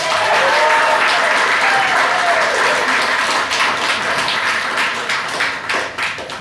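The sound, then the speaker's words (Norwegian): An audience applauds steadily in a hall at the literature festival in Lillehammer, welcoming authors and illustrators Kari Stai and Nina Grøntvedt, a dense wash of many hands clapping at once, loud and sustained before gradually thinning out toward the end. “Så her er det, som alle lyttere kunne høre, publikum i salen.”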